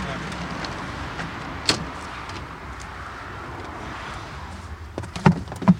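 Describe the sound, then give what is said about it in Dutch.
Plastic traffic cones are stacked and stowed back in a car's rear hatch after a roadside incident is cleared: one sharp knock early, then a cluster of hollow clunks near the end, over a steady wash of passing traffic. “Pionnetjes worden weer opgeborgen achterin de klep.”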